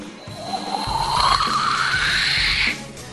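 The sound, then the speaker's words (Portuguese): A voice imitates an airplane, a sustained rising whoosh that climbs steadily in pitch for a couple of seconds before cutting off, fairly loud. “Tentei fazer o barulho do avião lá.”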